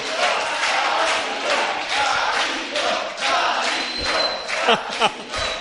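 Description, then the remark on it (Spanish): A crowd applauds and cheers steadily for several seconds, a dense wash of clapping with shouts and whoops rising through it, plus a few low thumps near the end. “Un aplauso, un aplauso para”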